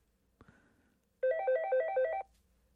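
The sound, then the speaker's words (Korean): A mobile phone ringtone plays in a bar for about a second, a bright electronic melody of quick, evenly pulsed high tones, loud and alone after a brief soft knock. “그렇게 친구들과 즐거운 시간을 띵까띵까 보내고 있는데 그때 휴대폰 벨소리가 울리대요.”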